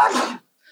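A single sharp sneeze bursts out loudly and cuts off abruptly, followed by near silence and a faint trailing breath.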